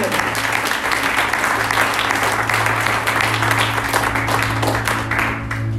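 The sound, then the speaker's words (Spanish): An audience breaks into loud, sustained applause, dense overlapping clapping that holds steady for about six seconds with no pause, over a low constant hum. “Si le vas a aplaudir, de fuerte.”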